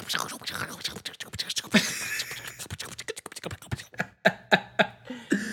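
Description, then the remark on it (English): Fairly loud keyboard typing: a rapid, uneven run of sharp key clacks that thins out toward the end into a few distinct, separated taps. “stop typing so loud.”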